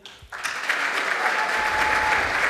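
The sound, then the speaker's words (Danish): A school audience breaks into applause after a brief pause, voting by clapping for AI as word of the year, a dense wash of many hands clapping together that holds steady and fairly loud. “Hvor mange synes, at AI skal være årets ord? Lad mig få en applaus for det.”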